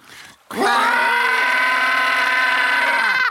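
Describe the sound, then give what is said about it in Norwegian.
Three voices join in a loud, sustained wailing tone after a brief murmur, together imitating an alarm siren for about three seconds, the harmonics holding steady before cutting off. “Ja, vi kan jo sende ut den, eh, den alarmen som har hver gang noen har gått på en smell her.”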